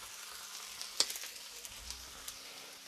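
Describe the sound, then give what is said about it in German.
Green beans, shaken off so they are not too wet, sizzle and crackle as they go into a large hot pan with onions, Leberkäse and Schupfnudeln. A steady hiss is broken by sharp pops, loudest right as they hit the oil, with no voices. “Und die kommen mit in die große Pfanne”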